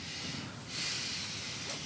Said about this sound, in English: you didn't like that, huh? well, like my my inhale.